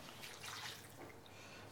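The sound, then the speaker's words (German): Water pours in a steady, splashy stream into a cooking pot during cooking, a bit stronger at first and then easing off, with faint dripping toward the end. Fairly quiet, with no talking. “Ja, noch ein bisschen Wasser.”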